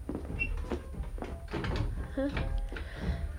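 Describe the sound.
A large chest of drawers with a bunch of keys left in its lock is pulled open: several wooden knocks and scrapes with a brief squeak partway through, while faint voices murmur in the background.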